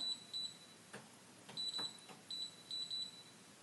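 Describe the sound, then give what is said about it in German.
Stove control panel beeps as a two-minute timer is set while cooking: several short, high electronic bleeps, mostly in quick pairs, mixed with a few soft button taps. Fairly quiet, with no talking. “Ah, Herd.”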